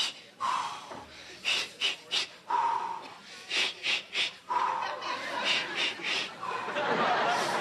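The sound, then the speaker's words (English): Heavy, rhythmic breathing of a woman in labor while stuck in an elevator: a steady series of loud huffing pants and gasps, some voiced, repeating in quick bursts with short pauses between them, and no clear speech. “I'm breathing with you”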